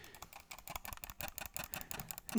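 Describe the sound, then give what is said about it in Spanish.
Rapid computer keyboard clicks in a steady, uneven patter, fairly quiet, with no voices. “Y nomás se escucha a pleno, a pleno audio, se escucha así los clics, se escucha el.”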